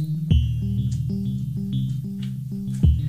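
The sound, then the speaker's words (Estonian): Electronic music with a steady, repeating thudding bass beat and bright synth tones, drenched in heavy echoing reverb that makes it sound like it's playing inside a cave. No voices. “ma ei tea, kas see on kaja, aga mingi sihuke asi eh, nagu need eh, helid, need tõnd-tõnd-tõnd värgid oleksid mingi siukses õrnalt kajavas kumedas ruumis, mingis koopas, mingi koopamuusika nagu minu meelest.”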